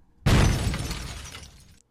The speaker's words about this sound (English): Cannonball or cannon gets destroyed.